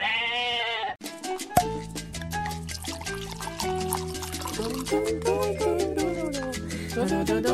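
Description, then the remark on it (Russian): A single wavering goat bleat lasts about a second, then cuts off as an upbeat music track with steady bass notes and bright percussion takes over. “Найдите козу, примите у нее роды.”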